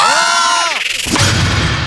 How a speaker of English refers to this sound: Well, one more, one more scream from all of you.